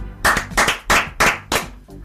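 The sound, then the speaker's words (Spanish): Short burst of applause: about five crisp, evenly spaced claps at a steady rhythm, loud and sharp, with no voices over them. “Este aplauso es para usted también.”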